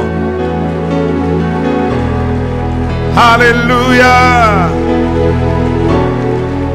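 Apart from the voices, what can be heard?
audience applauding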